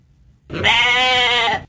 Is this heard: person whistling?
no